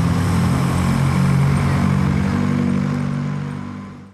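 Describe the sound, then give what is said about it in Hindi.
A Maruti 800 car engine roars steadily with a low, throaty hum, then fades quickly away in the last moments as a man drives off at high speed into the darkness. No voices are heard. “घर के बाहर खड़ी मारुति 800 की डिगी में सामान रखने के बाद वो शख्स गाड़ी तेज रफ्तार से भगाते हुए अंधेरे में गुम हो जाता है”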